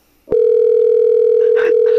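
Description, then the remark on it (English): A telephone dial tone starts abruptly after a short moment of quiet and holds as one loud, steady, unbroken low hum, with faint voices murmuring beneath it toward the end. “Oh, you're calling?”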